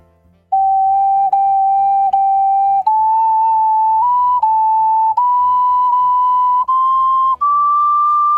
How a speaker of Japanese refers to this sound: 今日はそういうのできませんからもう触りだけですね。 はい ちょっとだけ ありがとうござい あ ます りがとうございます 今日ははいあのオカリナをお持ちいただいているのでどうぞ